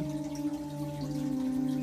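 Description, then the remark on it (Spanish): A soft, sustained ambient music pad holds a steady chord of smooth tones, with no speech, and drones evenly at a moderate level throughout. “agradecer las aves que cantan si escuchan esa música detrás, hermosa.”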